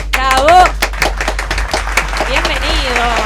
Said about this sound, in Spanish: Queremos darle la bienvenida con un fuerte y enorme aplauso a los chicos de Jazz Duo